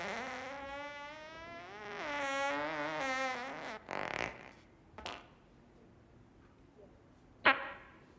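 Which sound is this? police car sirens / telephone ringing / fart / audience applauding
fart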